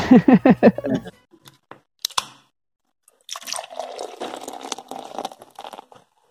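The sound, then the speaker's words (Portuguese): A short burst of laughter gives way to a few light clicks and clinks, then water pours and splashes steadily for a few seconds, followed by quiet sipping sounds as someone drinks the water. “Então, Ai, eu acho que eu preciso beber água.”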